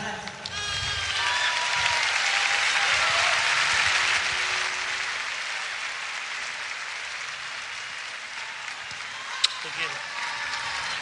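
An audience in Mar del Plata, Buenos Aires, Argentina applauds steadily to welcome a singer-songwriter onto the stage, a dense wash of clapping that swells over the first few seconds, holds, then gradually thins out toward the end without dying away completely.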